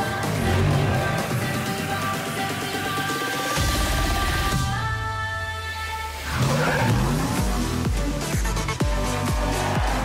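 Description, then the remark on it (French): A racing car engine in the video game Forza Horizon 3 roars and revs through rising and falling gear shifts, with tires squealing and skidding loudly partway through; no talking, just continuous motor noise. “C'est un peu ça, mais avec des bagnoles.”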